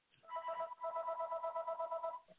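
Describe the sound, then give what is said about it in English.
A telephone rings in the background with a rapid, warbling electronic trill, one continuous burst lasting about two seconds, clear but slightly thin, with no talking over it. “I hear a phone ringing in the background.”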